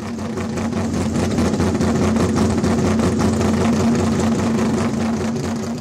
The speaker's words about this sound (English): She's in the blue 66 Shelby, and her car sounds just like that. It is really, really cool.